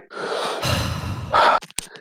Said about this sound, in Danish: tager du lige en øh, dyb indånding sammen med mig? Ja. Og ånder lidt ud. 1, 2, 3.